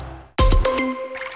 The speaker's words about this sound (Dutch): Hoor je dit? Dat is het geluid van kalkvrij water, dankzij een Emisoft waterontharder.